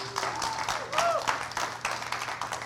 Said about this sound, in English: Now, I need you to clap your hands for me real quick. One more time. Just clap your hands.